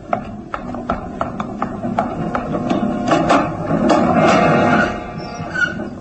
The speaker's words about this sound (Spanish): Calván abre la ventana y un vientecillo frío le acaricia el rostro como la mano de un frío cadáver invisible.